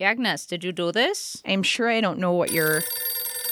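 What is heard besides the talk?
telephone ringing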